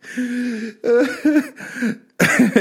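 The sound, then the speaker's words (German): A man lets out a series of rough, throaty coughs in four quick bursts, harsh and voiced, like an exaggerated smoker's hack, imitating his father's cough. “Ich rauche nur Reval ohne Filter jeden Tag, damit, damit ich von meinem Vater auch glaubwürdig husten kann.”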